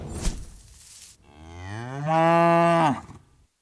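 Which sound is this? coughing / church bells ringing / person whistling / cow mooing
cow mooing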